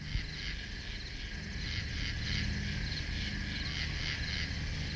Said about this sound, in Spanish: Afuera, en la noche, cantaban los grillos.